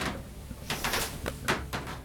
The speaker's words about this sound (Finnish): Lattia narisee.